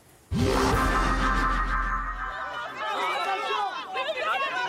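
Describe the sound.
A crowd in Gabon greeting French President Emmanuel Macron on his arrival, the first stop of his African tour: chatter and cheering swell suddenly after a brief quiet, loud and dense with overlapping voices, a low rumble underneath for the first couple of seconds.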